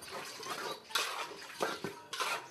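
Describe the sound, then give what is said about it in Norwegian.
Dishes being washed by hand by a 53-year-old village woman in the courtyard of her home in rural India, using water from a container: water splashing and sloshing with repeated clinks and clatters of pots and utensils, fairly loud, with no one talking. “Det er der hun tar oppvasken for hånd.”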